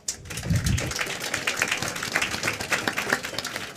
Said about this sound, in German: Da vielleicht auch mal einen kleinen Applaus.